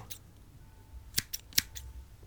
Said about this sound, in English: Then Sharkman gets his scissors out and starts cutting your hair.